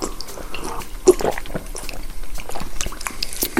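Water runs from a tap fitted with a filter-mineralizer in a steady splashing stream for a few seconds, with small bubbling and dripping accents scattered through it.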